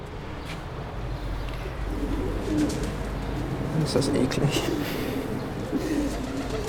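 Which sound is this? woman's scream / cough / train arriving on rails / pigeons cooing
pigeons cooing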